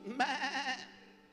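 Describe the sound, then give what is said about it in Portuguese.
Human voices together mimic a sheep's bleat as a war cry, in one short, wavering "baa" with a trembling vibrato, loud, then trailing off quickly into a quiet tail. “Mas nunca haverá uma ovelha. Imagine o grito de guerra. Todos juntos.”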